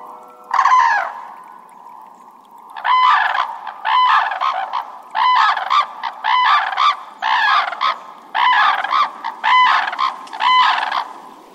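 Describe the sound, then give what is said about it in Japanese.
Red-crowned cranes trumpet loudly in a wetland marsh where a north wind blows at times: one opening call, then a rapid rhythmic run of about a dozen harsh, bugling notes over faint background hiss, with no talking. The species is Japan's only breeding crane, about 1.5 m long with a 2.5 m wingspan. “国内で繁殖する唯一の鶴で全長はおよそ1.5メートルほど翼を広げると2.5メートルもある日本最大級の鳥です”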